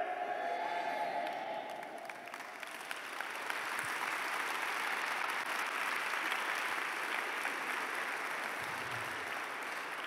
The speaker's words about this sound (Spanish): Vamos, a aplaudirle al Señor.